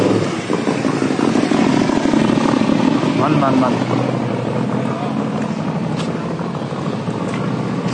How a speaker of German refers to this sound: Jetzt fährt hier auch noch ein Motorrad lang. Super.